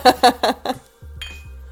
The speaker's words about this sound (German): Ja, wollen wir einmal kurz anstoßen?